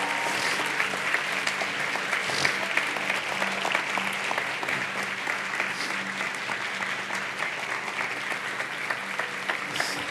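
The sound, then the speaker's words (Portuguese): A large church audience claps steadily and continuously, a dense, even wash of applause for the full ten seconds without pause, welcoming people coming forward to be baptized. “E nós vamos poder ver aqui a maior manifestação do novo, publicamente, eu queria que os meus amigos que vão se batizar se levantassem e viessem aqui para frente enquanto a gente recebesse eles com a grande salva de palmas.”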